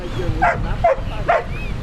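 A search-and-rescue sniffer dog trained by firefighters barks three times in quick succession, short sharp woofs over a steady low rumble of background noise; the bark is a signal.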